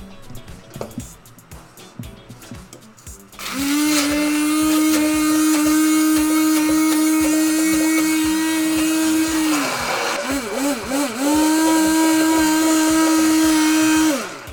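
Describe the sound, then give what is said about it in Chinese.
A blender starts up with a loud, steady motor whine, running for several seconds while making sakura shrimp sauce, dipping and wobbling briefly as it churns through food, then resuming its sustained high-pitched roar. “好，那我们现在现在打碎。”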